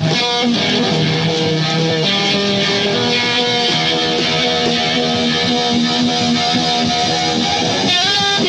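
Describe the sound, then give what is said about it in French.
A loud electric guitar played through a distortion pedal, with thick, buzzing sustained chords ringing continuously and densely for several seconds. No one speaks over it. “Et quand tu appuies sur ta pédale de distorsion, ça fait ça.”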